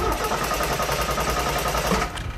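A new truck's engine being warmed up at dawn in Angola rumbles steadily, a dense low-pitched drone with a fast rhythmic chug, holding at a constant idle throughout with no voices.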